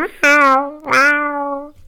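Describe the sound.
Someone imitates a cat with two drawn-out meows, each starting with a sharp onset and sliding down in pitch. Fairly loud, with a short pause between them and no other talking.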